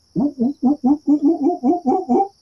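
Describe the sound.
A voice mimics the call of a monkey crawling along a tree branch, with about ten quick, rhythmic hooting bursts, loud, over a steady high insect-like whine in the background.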